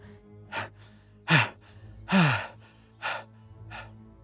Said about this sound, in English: Motecuhzoma stood at the peak of Aztlan, panting and spent, through his deep, gasping breaths